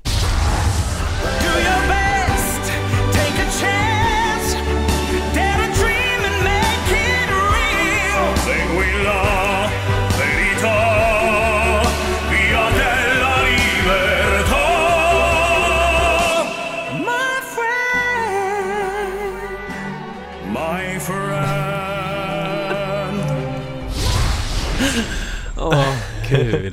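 A loud pop song with full band backing, sung by a single vocalist who shifts between a low, full voice and a high, lighter register, thinning out briefly before swelling again.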